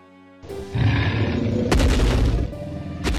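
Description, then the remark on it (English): A monstrous red dragon stomps down a wedding aisle, roaring with a deep, rumbling growl. Heavy booming stomps crash in every second or so. The sound is loud and continuous, with no talking. “Stomping down the aisle is the remarkable red dragon, Flaming Death.”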